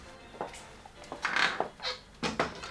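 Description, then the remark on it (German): A window being shut: a few soft knocks and a brief squeaky scrape, then a sharper clack as the frame and latch settle. Quiet, with no talking. “Machen Sie doch bitte das Fenster zu.”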